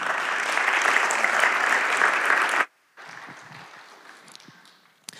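A crowd claps loudly with dense, steady applause for a Christian mission's associate director of development as he comes up to speak, breaks off abruptly, then resumes more softly and gradually thins out as it fades.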